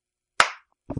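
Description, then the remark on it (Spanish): One sharp, loud hand clap used as a slate, with a brief ringing decay, followed by a moment of silence before a voice starts speaking at the very end. “Sí, es- este va a ser la claqueta de hoy.”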